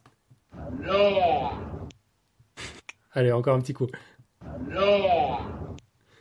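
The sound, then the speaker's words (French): A 22-year-old elephant named Koshik, living in a zoo in South Korea, mimics the Korean greeting 'annyeong' (hello) twice, each a drawn-out, voice-like utterance of about a second and a half, fairly loud. A person speaks briefly between them. “Donc, c'est un éléphant de 22 ans qui vit dans un zoo de Corée du Sud et qui manifestement a très envie d'être poli.”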